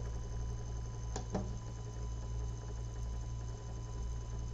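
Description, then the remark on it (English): A playback device whirs steadily, a continuous humming drone much like a running dishwasher, with two quick clicks near the start. No one speaks. “It's making that dishwasher sound.”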